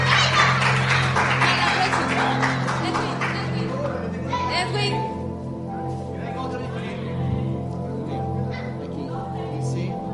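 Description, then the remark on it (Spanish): A burst of audience applause, dense and loud for roughly four seconds, then thinning out into scattered claps and murmuring voices over a steady low hum. “un aplauso, un aplauso.”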